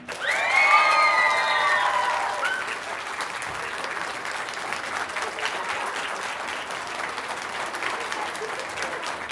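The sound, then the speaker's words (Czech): A crowd in Ostrava at the Ostrava book festival applauds steadily, welcoming actor Norbert Lichý, with shrill whistles and cheers rising over the clapping in the first couple of seconds before settling into dense, even applause. “Ještě jednou ten nádherný potlesk z Ostravy, který vítá e, nejen tvář letošního ročníku knižního festivalu Ostrava, ale i držitele ceny Neviditelný herec.”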